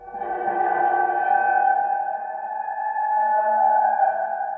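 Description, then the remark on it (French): A car key scraping a metal heating-oil tank, heavily processed into a sustained, eerie resonant drone of layered ringing tones. It holds steady and fairly loud for several seconds, with no voices. “Donc le son de base, c'était euh, un son de clé de voiture qui frotte une cuve à mazout. Donc un son assez moche de métal frotté euh, et après le son transformé.”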